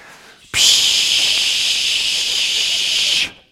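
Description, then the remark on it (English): A church prop can labelled 'de-religification spray' hisses in one steady burst of about two and a half seconds, a bright, loud, airy hiss that starts abruptly and cuts off cleanly, with no voices over it. “Let's spray that word follow.”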